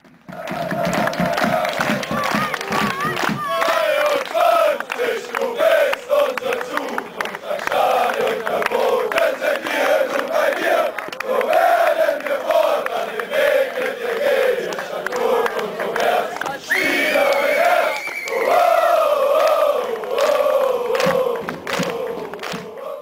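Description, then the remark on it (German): A large crowd of Ultras Frankfurt football ultras chants in unison at a second-team (U23) match in Bad Vilbel, loud and sustained, with rhythmic rising and falling shouted phrases repeating throughout, occasional thumps and claps mixed into the roar. “Ultras Frankfurt sind damals zur zweiten Mannschaft gefahren, weil ich glaube, die hatten eine große Welle an Stadionverboten.”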